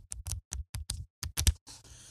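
Pages of a softcover learn-to-play rulebook from a game's core box being flipped: a quick run of crisp, papery rustles in an uneven rhythm, ending in a longer, softer swish. No one speaks.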